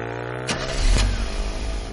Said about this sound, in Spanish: la noche se encuentra de nuevo en la gasolinera y ve a distancia cómo el chico del pelo rubio se va en la moto.